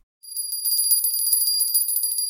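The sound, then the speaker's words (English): An ice cream vendor's small hand bell rings rapidly and continuously, a bright metallic jingling that starts abruptly and keeps a steady, fast shaking rhythm, clear with no voices. “Hearing the bell, I feel the smooth and sweet taste of ice cream and the touch of soft bread”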